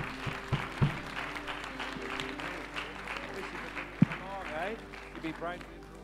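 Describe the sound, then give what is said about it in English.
An audience applauds steadily for several seconds for a young man who has just been prayed for, a dense wash of clapping with voices cheering and calling out over it, and a few sharper thuds near the start and middle. “Come on, let's give him a great clap, shall we?”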